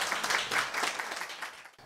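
Steady applause from an audience welcoming a pastor as guest speaker fills the whole stretch, a dense wash of many hands clapping at moderate volume that cuts off abruptly near the end.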